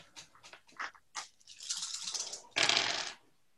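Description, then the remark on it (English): A handful of seven dice clicks together, rattles for a moment, then clatters loudly across a hard tabletop, with no one speaking. “will you roll seven dice for me?”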